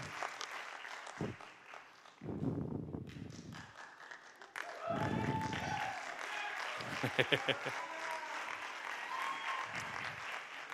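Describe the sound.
An audience applauds steadily for about ten seconds for a young man, a dense wash of clapping with voices calling out and cheering over it in short bursts.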